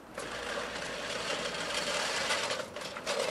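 A push lawn mower cuts grass with a steady, busy whirring clatter of spinning blades that holds an even level for a few seconds, with no voices.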